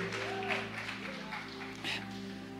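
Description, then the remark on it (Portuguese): An audience applauds and cheers to God, a dense wash of clapping with shouts of glory rising over it, all over a steady hum and sustained musical tones in the background. “Você pode aplaudir a Ele se você crer, dá um grito de glória.”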